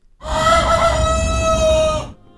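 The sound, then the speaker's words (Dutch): A rooster crows once, loud, a single sustained cock-a-doodle-doo lasting about two seconds with a strained, harmonic-rich tone, then stops abruptly. “En de uwe zou ook naar de hanenkloten zijn als u gewekt werd door dit.”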